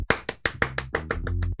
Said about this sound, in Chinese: 很庆幸是我在天后宫还可以看到雪龙海南味馆在这方面还是比较用心的，给他一个掌声。